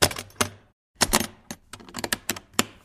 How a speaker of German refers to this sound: Oh, ich muss mal eben die Batterie wechseln. Es tut mir leid. Ich, irgendwie hat mein Ding hier, hat mein Ding hier schlapp gemacht. Batteriewechsel. Es ist ein Batteriewechsel.